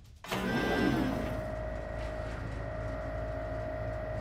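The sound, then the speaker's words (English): A heavy mechanical door starts with a sudden clunk, then grinds open slowly under a steady motorized whir and low rumble that drones on without pause. “Wow, this door is really slow.”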